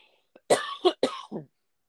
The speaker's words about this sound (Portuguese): Nossa, agora eu não vou parar de tossir.